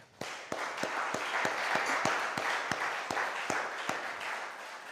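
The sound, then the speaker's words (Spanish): A crowd breaks into steady applause for the Lord during a sermon, a dense wash of clapping with a few sharp, evenly spaced claps standing out in a regular beat, sustained for several seconds at a fairly loud level. “Dele un aplauso, Señor.”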